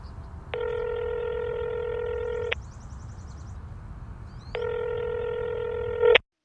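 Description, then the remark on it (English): A phone call ringing out: two long, steady ringback tones separated by a gap of near silence, heard clearly over a faint line hiss with no one talking. “Maybe I should call her so you can hear her too.”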